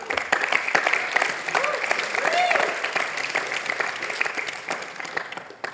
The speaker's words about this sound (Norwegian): Bare klapp for han.